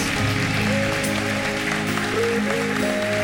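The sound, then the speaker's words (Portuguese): A church audience applauds the Lord steadily, welcoming people's decisions: a dense wash of clapping that stays loud throughout, with sustained keyboard chords and a melody playing underneath. “Se você se alegra por essas decisões, aplauda bem forte ao Senhor, dando boas-vindas.”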